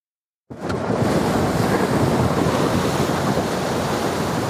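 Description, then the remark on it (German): Loud, roaring ocean waves crash and churn continuously after a brief silence, a dense wash of surf mixed with rushing wind noise and no voices. “Die tosenden Wellen schieben sie immer wieder kurz nach oben, bevor sie beide in die Tiefe reißen.”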